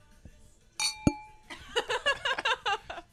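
Wine glasses of Chardonnay touch in a toast, one bright clink with a short ringing tail, followed by voices chattering and laughing.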